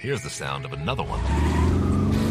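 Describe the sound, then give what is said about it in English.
A Lexus performance car engine revs up loudly and holds a strong, steady roar, rising in after a brief spoken line at the start. “you'll find great deals in our entire line of performance vehicles”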